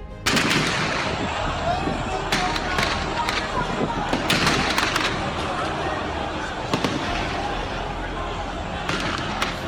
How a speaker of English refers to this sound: As the protests escalated, Professor Lambo invited the police to quell the protests, and typical of the Nigerian police, they opened fire on a crowd of about 3,000 protesters.